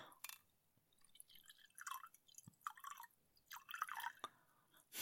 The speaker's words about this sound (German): Ja, eine also Tierforscherin, die sich ein Glas Wein einschenkt vielleicht. Wow, ja, genau.